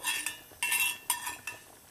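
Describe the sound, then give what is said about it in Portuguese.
A metal utensil scrapes against a pan in several short, bright strokes, removing cooked bacon from the pan, with a faint sizzle underneath between the scrapes, fairly loud. “O nosso bacon aqui está pronto, então vamos tirar o bacon da nossa panela”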